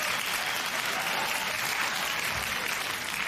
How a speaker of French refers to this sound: on donne une bonne petite main d'applaudissement, hein, hein.